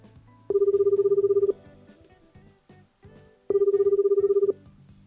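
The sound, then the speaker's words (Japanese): Two bursts of a phone's ringback tone as a call is put through to actress Mori Louis, each about a second long with a rapid pulsing warble, separated by a pause, heard clearly over faint low background noise with no talking. “では早速なんですけれども森ルイスさんの方に、えー、お電話つないでいこうと思います”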